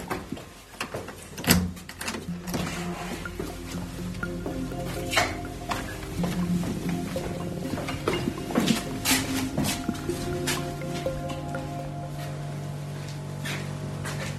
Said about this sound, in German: Dieses sanfte Summen, das ist doch wahrscheinlich die Wärmepumpe, oder? Genau, das klingt äh, total unspektakulär und sieht auch unspektakulär aus.